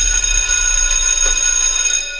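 A school bell rings loudly and continuously to announce the end of classes, a steady metallic electric clatter that holds for a couple of seconds before tapering off slightly, with no voices.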